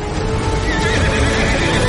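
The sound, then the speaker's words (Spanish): A horse ridden by a man gallops away as a torrent of floodwater advances, with rapid, pounding hoofbeats and a whinny over a dense, rushing background; the sound stays loud throughout, with no talking. “Él se monta en su caballo. Se marchan al galope.”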